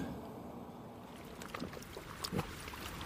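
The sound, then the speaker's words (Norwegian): The Latam 47 seaplane taxiing out across Puddefjorden on the evening of 17 June, starting its engine and heading north toward Tromsø: a low, steady engine drone stays faint while a few soft splashes and knocks break through near the end. “Latam 47 takser ut Puddefjorden, starter motoren og setter kursen nordover mot Tromsø.”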